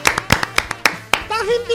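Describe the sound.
A quick run of about seven sharp hand claps in a slightly uneven rhythm, fairly loud, as the hosts applaud themselves, followed by a person starting to talk right after the clapping stops.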